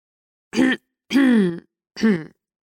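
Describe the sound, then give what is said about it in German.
Three distinct throat clears in a row, fairly loud, each a short voiced rasp separated by brief pauses, with no speech around them. “Der Professor räusperte sich eigenartig, setzte sich auf und lehnte sich mit einer ungewöhnlich ernsten Miene”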